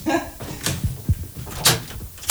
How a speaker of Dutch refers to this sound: Ik ga even de deur open doen.